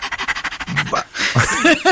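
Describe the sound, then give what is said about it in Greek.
A person imitates a dog panting, with quick rhythmic breathy huffs for the first second, then shifts into voiced, whiny dog-like sounds. Fairly loud, with no other voices. “Σκύλο δεν έχω, αλλά είμαι καλή στι μιμήσει.”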